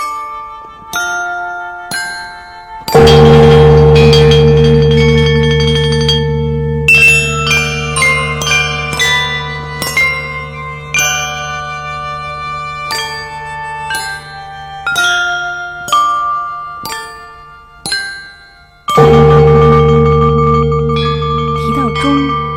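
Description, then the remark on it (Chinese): Ancient Chinese bronze chime bells (zhong) of the pre-Qin period play a slow melody: ringing struck notes with shimmering overtones decay one after another, and deep, booming low bells sound at the start and again near the end. “我要讲的乐器就是钟。”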